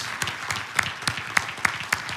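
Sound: round of applause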